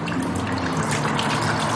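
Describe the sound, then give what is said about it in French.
Leftover water from hand washing is poured onto a handle in a steady, continuous splash, a full hissing stream, with no voices over it. “Et puis enfin, vous versez l'eau qui reste sur la poignée.”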